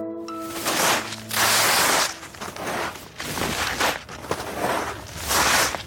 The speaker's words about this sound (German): Ich kenne fast kein schöneres Wintergeräusch als das, was Sie gerade gehört haben, das Kratzen von Skiern auf Schnee.